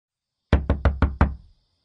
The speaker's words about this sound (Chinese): 敲门的声音传来